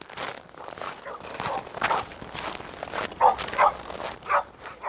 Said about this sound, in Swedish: Polishundar skäller på baksidan. De gläfsar och morrar. Ljuden kommer från den inhägnade parkeringsplatsen där poliserna även får ställa sina privata bilar för att slippa skadegörelse.